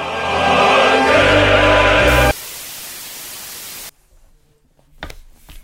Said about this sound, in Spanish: Bueno, disculpamos el, parón, hemos tenido algún tipo de interferencia, se nos ha bloqueado el ordenador.